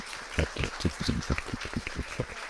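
An audience applauds, many hands clapping in a dense, irregular patter that holds steady for a few seconds at a moderate level, with no voices standing out.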